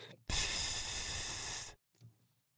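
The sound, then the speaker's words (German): A man imitates an airplane flying overhead, to show that a spare part must be flown in from Athens, with one loud, steady, breathy whoosh lasting about a second and a half, then stopping abruptly and followed by a brief soft breath. “Und um uns klarzumachen, dass er ein Ersatzteil brauchte, das aus Athen eingeflogen werden musste, machte er immer folgendes Geräusch.”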